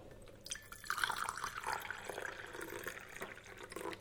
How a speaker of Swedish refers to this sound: Och då sätter jag på det här och eh, det ska koka. Koka någon minut sådär så du får varmt vatten. Så. så. Och eh, nu när det har kokat upp då du tar den och så häller du i, i din kopp, kappas upp.